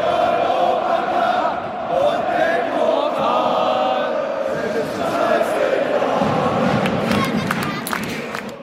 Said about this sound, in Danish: Det her er lyden af en af Hertha Berlins hjemmekampe, og som man kan høre, så er det fra en tid før coronaen.